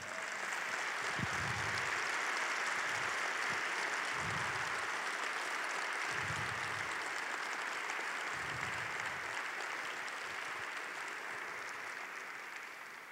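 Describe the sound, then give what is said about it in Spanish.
A large audience applauds God loudly and steadily for the full stretch, a dense wash of clapping with scattered shouts and cheers rising through it. “Ah, dale un fuerte, fuerte aplauso a Él.”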